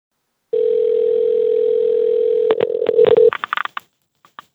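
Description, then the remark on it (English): A steady telephone dial tone hums for a few seconds as a phone call is placed, then gives way to a quick run of clicks and short dialing beeps, with a couple of faint blips trailing off at the end. “So my producer Matt scheduled a phone call”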